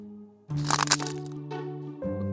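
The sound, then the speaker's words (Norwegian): A sharp cracking snap bursts out over a sustained tonal hum, with a crunchy, splintering texture that fades into a steady drone. No one speaks. “Å, mener du den lyden? Uh -huh. Det var lesekoden som knakk.”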